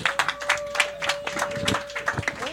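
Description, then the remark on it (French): An audience applauds a band that is about to premiere its latest clip, with dense, continuous clapping at moderate volume, without letup, while a steady faint tone hums beneath it. No one speaks. “Une bonne main d'applaudissements pour ….”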